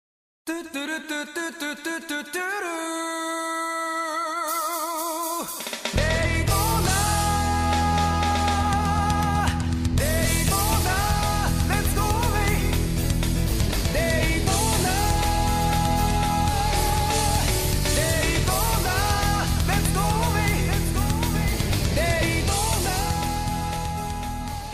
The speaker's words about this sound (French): J'ai quand même eu une Saturne, parce que j'ai un copain qui me l'avait prêté avec euh, un jeu de course que j'ai envie de vous entendre bah évoquer. On s'écoute évidemment la petite musique et on en discute juste après.